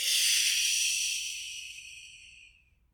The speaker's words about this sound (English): So that exercise of breathing in and then breathing out through your third eye.